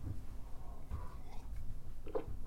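A quiet sip of coffee: a soft slurp and wet mouth sounds, with a brief swallow near the end and no talking.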